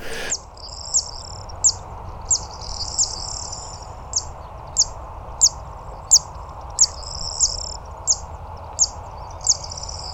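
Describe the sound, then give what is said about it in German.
A bird gives a high, dry, insect-like buzzing call, a steady rhythmic series of short repeated notes with sharper ticks, over a faint low background hum and no talking. “Äh, kann ja nur dem insektenähnlichen Geräusch zuhören.”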